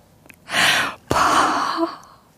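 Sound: voice imitating ocean waves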